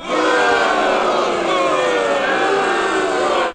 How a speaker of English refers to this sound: But before we do mm-hmm. that, we're gonna get the booing ready.